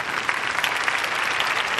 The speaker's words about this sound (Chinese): 耶，要拍掌吗？要放罐头掌声？